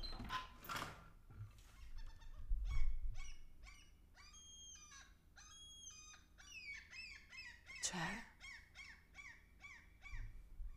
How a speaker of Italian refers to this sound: No, non avete idea di quanti gabbiani ci siano. Lo, li sentite? Spero che li sentiate. Aspetta, provo ad aprire la finestra perché cioè, nella speranza che non mi ne entri uno dentro.